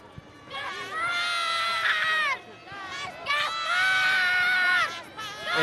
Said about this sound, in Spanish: Estamos en la calle Prin en estos momentos y como os podéis imaginar esto es una locura con miles de niños gritando el nombre del rey preferido e intentando coger el mayor número de caramelos. Escuchen.